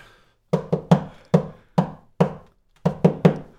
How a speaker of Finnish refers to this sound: Mä koputan tähän.